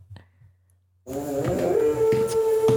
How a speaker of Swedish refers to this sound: nu ylar hunden i bakgrunden här. Nej! Jo. Var det i rätt tonart han ylade?